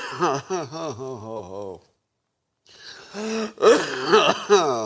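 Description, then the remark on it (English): Coughing and throat clearing from one person, a strained voiced stretch, a brief silence, then a harsh burst of coughs with raspy, breathy catches. “me cough it out today.”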